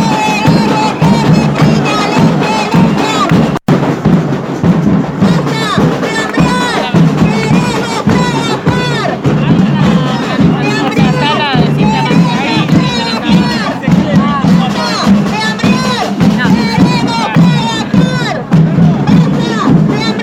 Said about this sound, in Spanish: son dos audios del el sonido de la movilización de fondo y algunos cantitos